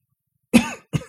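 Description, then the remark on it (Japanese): Two quick, harsh coughs, the first longer and rougher than the second, with a brief pause between them and no talking. “咳 込みました。”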